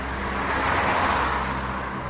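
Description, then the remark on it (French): A car with its headlights on comes around a bend, its engine rumbling steadily with broad road noise, swelling slightly as it approaches and then easing off as it slows down, with no voices. “En s'approchant de moi, la voiture a ralenti.”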